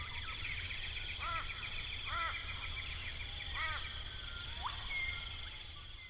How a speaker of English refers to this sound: The first one is biophony. That's all the wild animal sounds. So, an example of biophony would be this chorus of birds.